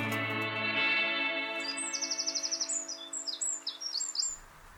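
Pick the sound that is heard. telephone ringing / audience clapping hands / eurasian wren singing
eurasian wren singing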